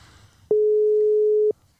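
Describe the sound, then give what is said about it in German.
A single steady ringback tone while calling someone by phone, a loud, pure mid-pitched beep lasting about one second, with faint background noise before and after and no talking. “Das Alte Leute schon. gehen immer langsam ans Handy.”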